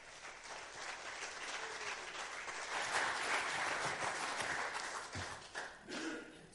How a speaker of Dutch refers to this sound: geef hem alvast een hartelijk applaus.